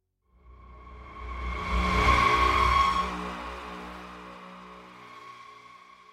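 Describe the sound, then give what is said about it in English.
A car engine hums and swells as the vehicle speeds up, peaking loudly before fading gradually. No voices are heard. “The Nishachar had parked his car next to a burial ground on the side of the highway to take a break from the long drive.”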